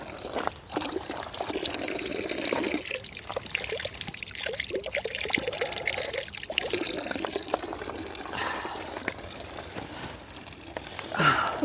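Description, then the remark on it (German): Cold water streams and splashes steadily from a drinking fountain, a continuous gurgling pour with slight fluctuations that swells a little louder near the end. “Ja, zurück zum Brunnen, Schluck Wasser das ah, und nochmal Schluss drin. Das Wasser kalt.”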